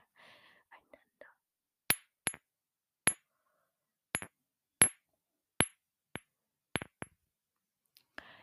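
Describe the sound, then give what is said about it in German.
Glass perfume bottles are tapped together about ten times in an uneven rhythm, each a sharp, bright clink with a brief ringing tail. A soft whisper comes just before the first tap. “Wartet, ich klopfe das mal so gegeneinander.”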